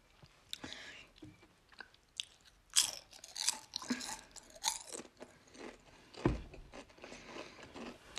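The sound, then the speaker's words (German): Crunchy Tuck Meersalz Crisp sea salt crackers, extra crispy and extra thin, being chewed: a steady run of crisp, crackling bites with sharp bursts around the middle and one loud snap near the end; no talking. “Die heißen, also die sind von Tuck und die heißen Meersalz Crisp gibt es vielleicht momentan in manchen Filialen nicht, aber vielleicht im Kaufland.”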